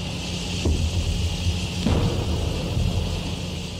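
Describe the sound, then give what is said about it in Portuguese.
An original recording of steady outdoor jungle ambience in Vietnam, with a constant high insect-like drone over a low rumbling bed, broken by two brief soft thuds, with no voices. “E aí eu queria mais uma vez convidar você que está ouvindo para prestar atenção no som, que é um som original da mata no Vietnã, e tentar se imaginar nesse lugar.”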